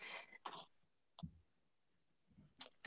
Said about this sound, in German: Sorry, ich muss mich so räuspern. Bei uns ist noch so früh und ich merke, ich meine, mein Hals, da kommt doch ganz schön viel.